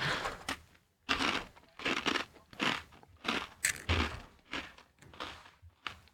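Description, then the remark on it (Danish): Someone chews roast duck noisily, a steady run of wet, crunchy bites repeating roughly every half second, fairly loud with no talking over it. “Kan I smage det der anden, anden, høne. anden steg derovre.”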